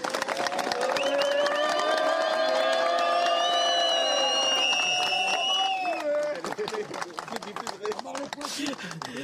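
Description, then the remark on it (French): A crowd applauds loudly with dense, steady clapping throughout, while raised voices cheer over it at first; the clapping becomes more prominent and rapid toward the end. “elle dit beaucoup de choses cette séquence et ces applaudissements autour.”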